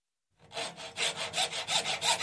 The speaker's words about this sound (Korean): 안에 들어서자 우리는 서둘러 엎어진 조각배로 다가가 무릎을 꿇고 엎어진 조각배에 감춰둔 마이크 스탠드를 끌어내 똑바로 세우고 그 앞에 서서 어디를 자를지를 결정한다. 우리는 눈높이에 맞추기로 하고 톱질을 시작한다.